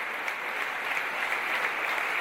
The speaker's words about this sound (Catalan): Estos aplaudiments corresponen a quan Josep Almudebre va rebre fa dos anys l'alta distinció de la Generalitat Valenciana de la mà del president Puig per ser exemple de memòria viva.